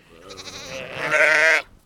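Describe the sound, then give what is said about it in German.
A single drawn-out sheep bleat, loud, with a wavering, quavering tone that swells toward the end before cutting off abruptly, with no other sounds around it. “Und wir haben als Infotier diese Woche die Schafe.”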